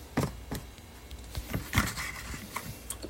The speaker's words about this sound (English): I know you guys hear me screwing with the microwave, and that's none of your business.